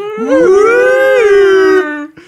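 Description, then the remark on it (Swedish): A siren sound effect: one loud, wailing tone that swoops upward, holds steady for about a second and a half, then slides down and cuts off, with no talking. “Gay-sirenen igen nu där.”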